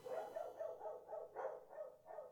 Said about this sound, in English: By the way, I can hear your dog. I'm sure you can.